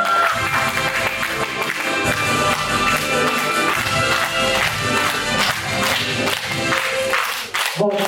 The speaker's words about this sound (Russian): Каждому участнику по призу. Всем замечательно. Аплодисменты, аплодисменты!